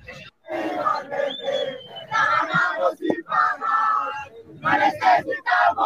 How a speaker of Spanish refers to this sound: Ah, ahí está, ahí está, ahí está, ahí está, ahí está, la arenga de Santa Fe, mira, mira, escuchen, escuchen.